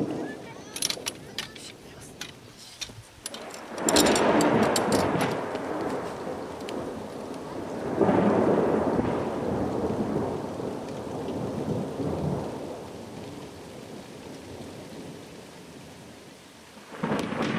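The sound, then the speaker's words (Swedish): Steady summer rain in Sweden pours down while deep rolls of thunder rumble through, with a loud crash around four seconds in and another swell near eight seconds, fading into continuing rainfall. “andra sidan betyder typ regn att man med god samvittighet kan ta bilen och dra på storhandel.”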